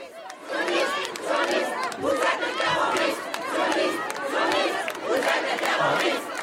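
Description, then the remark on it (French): A protest crowd at Place de la République in Paris, France, with police present, chants slogans in loud, rhythmic unison, many voices rising and falling in repeated phrases with a steady, insistent cadence throughout. “Et pourtant, en ce moment même, une manifestation se tient place de la République à Paris.”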